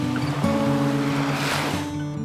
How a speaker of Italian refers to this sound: Una vita a cercare il silenzio, a immaginare la quiete della campagna, la pace della montagna, a concepire come massimo disturbo la risacca delle onde.